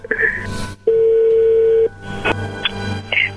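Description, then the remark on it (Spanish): A telephone number is redialed: a one-second steady dial tone followed by several short electronic keypad beeps at uneven intervals, with faint low background hum throughout and no speech. “A ver, márcala de nuevo.”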